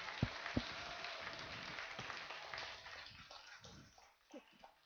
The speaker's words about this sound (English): Come on, can we clap our hands for those that made that decision for the first time today?